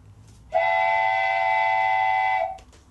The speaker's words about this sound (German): deshalb kurz die Pfeife, die Spoiler-Pfeife.